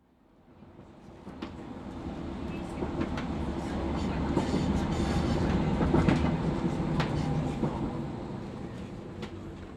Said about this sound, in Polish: Podróż tramwajem przebiegła bez przeszkód.